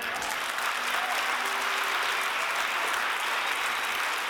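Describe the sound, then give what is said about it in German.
An audience applauds God steadily, a dense, even wash of many hands clapping that holds at a constant level for several seconds, with no voices standing out above it. “Dann gib Gott einen Applaus.”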